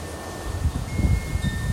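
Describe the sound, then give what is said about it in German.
Strong storm wind on Crete, on a day of about 31 degrees, roars and buffets the microphone in gusty low rumbles, surging a few times over a steady hiss, with no voices. “Das hier, dieses Geräusch, das ihr vielleicht hört, ist der Sturm.”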